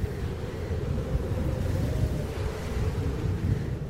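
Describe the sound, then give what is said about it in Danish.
Steady wind roars across the microphone outdoors by the sea, a constant low rumble with gusty buffeting and a faint wash of surf behind it, no voices present. “Men det blæser jo.”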